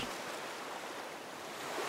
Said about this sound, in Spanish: Sí, eso que escuchan es el mar.